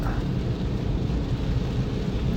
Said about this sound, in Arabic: هل مزعج صوت الشتاء عندكم على المستمع ولا ولا رومانسي